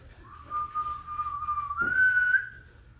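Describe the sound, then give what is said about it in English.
A person whistles two sustained notes to call a dog to come inside, the first steady and the second stepping up higher, a clear call with no talking. “I'm whistling for my dog to come inside.”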